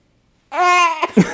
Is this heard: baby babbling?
yes